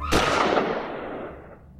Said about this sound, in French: Tout va très vite. L'individu sort un pistolet d'un sac en papier et lui tire dessus.